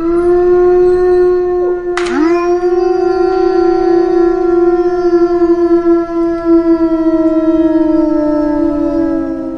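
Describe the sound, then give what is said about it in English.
Wolves howl in a long, loud, unbroken wail, the pitch holding steady and sagging slowly after a brief dip near the start, with no talking over it. “Those are the actual sounds of wolves.”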